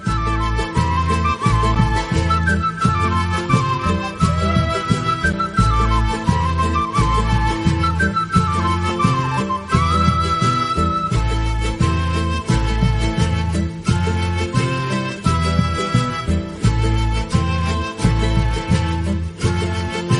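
Ecuadorian Andean folk band music with a high, breathy wind-flute melody over steady strummed chords and a pulsing bass. The music plays loudly and continuously, with no voices.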